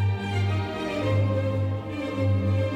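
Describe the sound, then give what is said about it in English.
A full orchestra of 326 hands plays a short passage by Mozart, with sustained string-like chords swelling steadily at a loud, even level, with no voices present. “This is the sound of 326 hands playing Mozart.”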